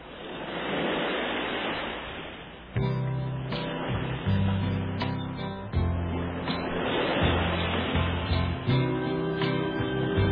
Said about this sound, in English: Little ocean noise first.